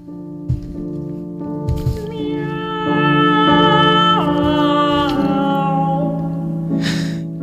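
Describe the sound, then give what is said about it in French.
Two operatic voices trade and overlap sustained, sliding notes that imitate cats' meows, fairly loud over a steady background accompaniment, with no speech, in a song by Rossini about a duo of cats. “Une chanson euh, qui parle d'un duo de chats.”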